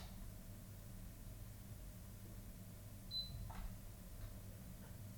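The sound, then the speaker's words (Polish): A single short, high-pitched electronic beep from a KVM switch port-select button, pressed to switch between port one and port two, followed by a couple of soft clicks, heard against a steady low hiss with no one talking. “Kiedy wciskamy przycisk wyboru portu, Słyszymy charakterystyczne piknięcie.”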